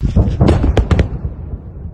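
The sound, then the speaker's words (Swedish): Several large explosions at an air base in Crimea boom in quick succession over a deep, continuous rumble, with sharp cracks near the middle before the roar gradually fades away, as black smoke rises on the horizon. “samtidigt som det stiger svart rök i horisonten från liksom stora explosioner på en flygbas.”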